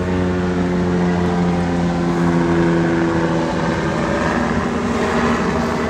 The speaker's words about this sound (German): Wir haben hier nebenan den Militär, einen Militärplatz. Und da also sprich, da, da, da gibt es Übungen. Man sieht hier vor der Schule immer wieder mal Militärfahrzeuge wirklich hoch ausgerüstet mit Waffen und allem Möglichen.